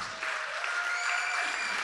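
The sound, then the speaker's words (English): An audience claps together for the Lord in a dense, steady burst of hand clapping, with a bright, sustained wash of many hands and a few faint cheers mixed in. “Let's give the Lord a hand clap and shout.”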